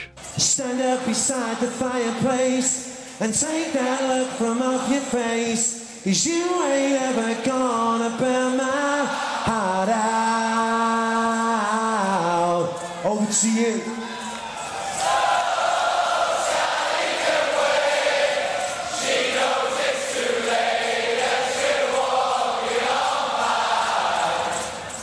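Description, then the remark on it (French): A vast festival crowd at Glastonbury in 2018 sings a melody together a cappella with no instruments, voices swelling in unison, before the singing dissolves into a loud, sustained roar of cheering. “Oh là là là là, les frissons pour cette version … a cappella chantée à Glastonbury en 2018.”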